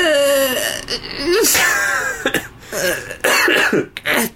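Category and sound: human body sound, cough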